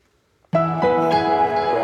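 After a moment of silence, the short musical sound logo of Wondery bursts in: bright, full chords with a couple of quick added notes, ringing out loud with no voices.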